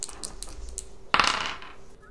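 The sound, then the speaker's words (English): Two dice clatter onto a hard surface, giving a sudden bright rattle that fades over about a second. Light clicking taps come before it, and no one speaks. “Is that both dice?”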